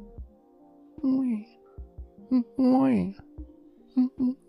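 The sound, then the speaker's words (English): A dog whines in several short, high, wavering bursts, the longest rising and falling like a crying baby, with brief pauses between the cries and a steady low hum underneath. “Dog's doing it just fine for you.”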